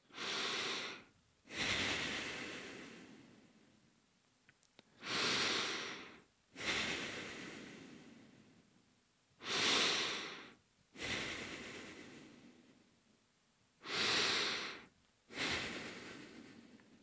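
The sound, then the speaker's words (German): Slow, deep, calm breathing: about four full cycles of airy inhales and longer, gradually fading exhales, evenly paced with brief pauses between, and no talking. “Das ist auch möglich dann atme am besten nochmal viermal ganz ruhig und tief ein und aus.”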